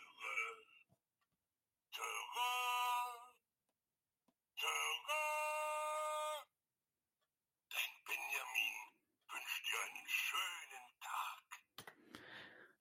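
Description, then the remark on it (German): An old Benjamin Blümchen alarm clock, nearly 20 years old and kept on a windowsill, rings in two long, buzzy electronic bursts with a steady pitch and a short pause between them. Someone is talking before and after the alarm. “Das heißt, der ist jetzt, der wird jetzt nächstes Jahr 20 Jahre alt, dieser Wecker. Und der kann immer noch das hier.”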